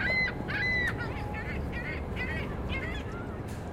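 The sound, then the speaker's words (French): Birds in a city call repeatedly in a quick series of short, honking cries over a steady low rumble of wind or water; no one speaks. “Les oiseaux sont là et il y a plus d'intérêt pour la qualité de vie.”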